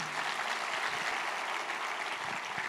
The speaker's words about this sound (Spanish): ¿Cuántos pueden decir amén y dar un aplauso al Señor por eso?